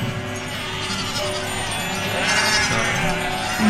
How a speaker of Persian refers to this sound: درخت که نداره تو اون ارتفاع ولی صدای مرغ خروس و خب خیلی واضح میشنوی صدای دامو از دور میشنوی که داره چرا میکنه